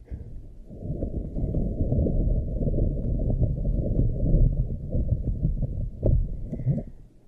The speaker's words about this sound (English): But I just want you to know that we're gonna do ocean sounds and ocean sounds can be a little intense, so you may not be able to hear me, but we're gonna do ocean sounds, okay? So don't be alarmed if you can't really hear me that well.